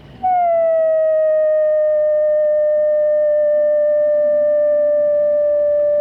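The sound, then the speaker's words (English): A Weddell seal, a large seal, calling underwater beneath the Antarctic ice in McMurdo Sound, recorded by Dr. Ian Stirling: one long, eerie whistle that dips slightly in pitch at the start, then holds a steady, pure tone for several seconds, loud and alone with no talking. “That unearthly sound is made by a Weddell seal, a large seal that can dive almost 2,000 feet deep under Antarctic ice, chasing the squid, fish, crab, and shrimp that it eats.”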